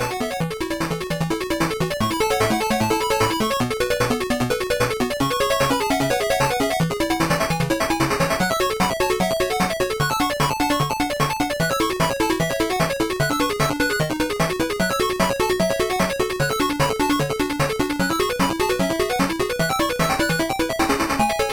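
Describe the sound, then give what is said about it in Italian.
Sega Master System chiptune game music plays steadily throughout, a busy, bright melody of buzzy square-wave notes over a bouncing bassline, with no voices. “questo, amici, per me è un suono del cuore perché il Master System è stata la console che ho ricevuto sotto l'albero di Natale a 4 anni quando ancora non avevo ben chiara l'idea di cosa fosse una console e fu una gioia totale”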